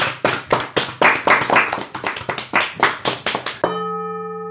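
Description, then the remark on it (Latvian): Quick, steady applause of clapping hands on the Latvian Radio show Greizie rati gives way to a single strike on a porcelain gong, which rings on with several clear, sustained tones that slowly fade. “Noskan porcelāna gongs”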